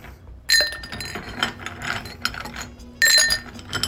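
Ice cubes clatter into a tall Collins glass in two bright bursts, around half a second and three seconds in, with scattered clinks and rattles between them, fairly loud with no talking, as ice is added for a Cointreau and soda water drink.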